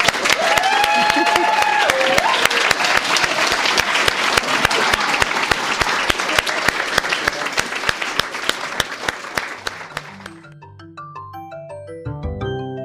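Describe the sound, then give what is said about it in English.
A crowd applauds the readers at a Lighthouse Writers Workshop reading, loudly and steadily for about ten seconds, with a few whistles early on, before the clapping fades and a soft melodic music outro takes over. “Let's give them a hand.”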